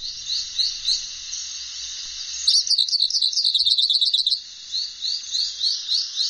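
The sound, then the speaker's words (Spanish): A hooded siskin sings alone, clear: high, twittering phrases of repeated chirps that swell into a fast, bright warbling run midway, then settle back into evenly spaced high notes. “los pájaros, por ejemplo, cabecita negra, vamos con cabecita negra”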